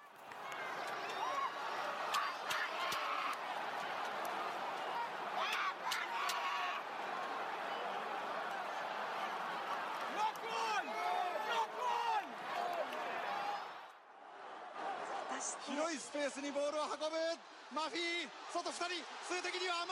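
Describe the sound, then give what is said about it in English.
A loud rugby stadium crowd at a South Africa versus Japan match roars continuously while a South African fan shouts "knock on, knock on" repeatedly over it, then the scene cuts abruptly to busier voices and commotion. “that South African fan that you heard at the start shouting "knock on, knock on."”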